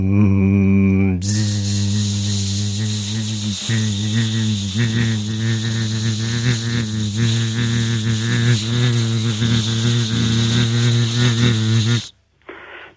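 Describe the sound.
A voice imitates a vintage car engine with a low, buzzing hum that carries steadily for about eleven seconds, wavering a little in pitch and overlaid with a breathy hiss, then stops abruptly.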